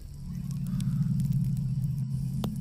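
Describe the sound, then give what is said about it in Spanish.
A campfire crackles steadily, with scattered sharp pops and snaps over a continuous low, rumbling roar of flames. No one speaks; the fire is moderately loud. “El fuego se apaga.”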